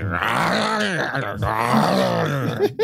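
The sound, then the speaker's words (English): A human voice imitates a space worm's groaning roar as it chases right behind, a sustained, gravelly growl that swells and wavers for a few seconds before breaking off abruptly. “It follows hook, line, and sinker and it's right on your tail, and you hear this as”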